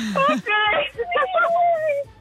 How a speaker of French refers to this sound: Oh là là Oh non ah, c'est les enfants qui pleurent derrière toi Oui, c'est mes enfants, oui.